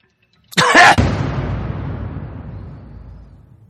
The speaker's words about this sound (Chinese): 突然右侧耳边只有气声和咳嗽，一个和一声叹息哦，还有叹息声，是这样的吗？嗯，伴随着一股微弱的气流就喷到我潮湿的右脸颊之上